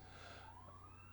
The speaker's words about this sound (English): If you can hear that, there's a siren outside.